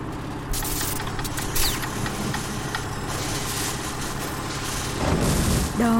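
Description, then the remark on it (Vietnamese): A generator engine runs steadily throughout, a loud, droning hum with a rumbling low end, swelling slightly near the end with a brief rising whine. “là tiếng máy của máy phát điện, tiếng vo ve của những mạch điện to bản, tiếng máy biến áp đến lửa cháy xèo xèo.”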